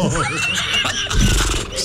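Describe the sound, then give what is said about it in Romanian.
A Hungarian man's voice imitates a horse's whinny the way it sounds in Hungarian, a loud, quavering neigh that rises and wobbles before breaking off in a short burst. “un ungur făcând ca un cal este ceva foarte rar”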